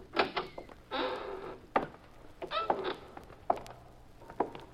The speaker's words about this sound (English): Walk into that warehouse. Go on. The side door is open. Push it and go on in.